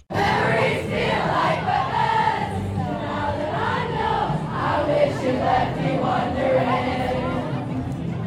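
A large crowd sings together in a loud, continuous wash of voices, many people carrying a melody at once with a roomy, echoing sound and no instruments standing out.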